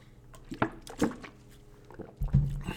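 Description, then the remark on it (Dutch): Someone takes a sip of water: a few small wet mouth clicks, then a short, low gulping swallow near the end, all fairly quiet with no talking. “Ik neem eventjes een slokje water.”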